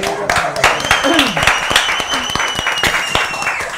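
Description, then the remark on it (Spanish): A crowd applauds the group's manager, a woman dressed in white who is present, steadily, a dense patter of many hands clapping at once for several seconds, with a few whoops and voices rising through the clapping. “Eh, Un aplauso para nuestra manager, por favor.”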